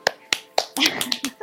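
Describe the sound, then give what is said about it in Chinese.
Quick hand claps, about six or seven sharp crisp smacks in an uneven rhythm, with a brief voice murmuring beneath them partway through. “对，拍手， 拍手。”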